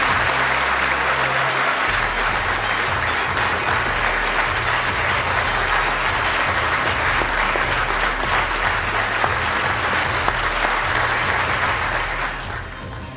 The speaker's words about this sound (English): So that was a sustained applause and a wonderful reception for Judge Brett Kavanaugh